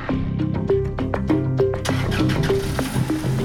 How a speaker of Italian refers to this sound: Poco dopo alcune auto lasciano la procura. A bordo ci sono i magistrati. C'è Michele Misseri. Le macchine dei giornalisti inseguono